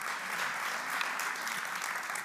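An audience applauds steadily for a participant called to the front to solve a nine-dot puzzle, a dense wash of many hands clapping at once, even in loudness throughout, with no voices standing out.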